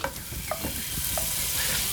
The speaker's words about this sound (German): Als nächstes kommt ein großer Schluck Olivenöl in die Pfanne. Also ich meine groß, wenn ich groß sage, und äh, rein damit. Wir sind in Spanien. Jetzt Hühnerschenkel und Kaninchenfleisch in die Pfanne geben, um rundum ordentlich angebraten zu werden.